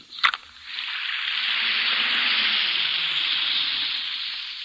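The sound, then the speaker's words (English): An Alka Seltzer antacid tablet drops into water with a quick plop, then fizzes in a steady effervescent hiss that continues without voices until the end. “Listen to it fizz.”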